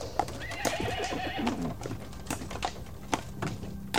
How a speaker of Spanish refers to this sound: El coronel Oreja Prieta llegó a la casa, hizo que su caballo tocara con la manita